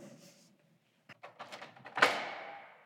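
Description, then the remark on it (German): A museum door into an exhibition is opened: several quick latch and handle rattles, then a solid thunk that rings and fades over about a second, with no one talking. “Ich nehme mal die andere Tür”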